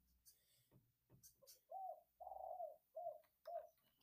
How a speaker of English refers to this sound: I've never heard the birds cheep so fast.